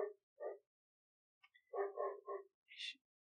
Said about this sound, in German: hasse diesen Hund, dass der immer in meine Aufnahmen reinbellen muss.